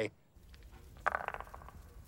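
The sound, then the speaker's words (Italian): Ancient Roman dice tumble and clatter across a hard surface in a quick burst of sharp clicks that settle after about a second. No other sounds around them. “Uno di quegli oggetti risalenti al periodo romano che oggi si può prendere e usare esattamente allo stesso modo.”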